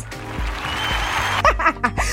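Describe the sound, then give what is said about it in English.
A short burst of hand clapping, a dense patter of claps from a few people welcoming a new music producer, with laughing and whooping voices rising near the end. “But okay, let's just clap that out”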